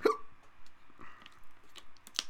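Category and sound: human body sound, hiccup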